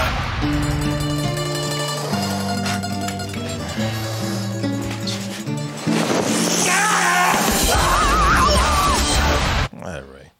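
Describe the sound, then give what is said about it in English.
A man yells loudly over a roar of rushing wind and water in a film scene, following a few seconds of sustained dramatic music, before cutting off abruptly. “He's almost got that Johnny Depp yelling out.”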